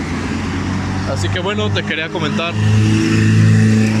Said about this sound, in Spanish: perdón por el ruido de carros, pero ahorita es de los pocos momentos que tengo disponibles para grabar esto